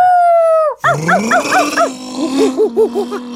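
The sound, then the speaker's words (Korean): A person imitates a dog howling as a sound effect: a long, high wavering howl that slides downward, followed by a string of short, bouncing yelping whines at a lower pitch over a steady hum. “개소리 한 번 더 낼 수 있습니다.”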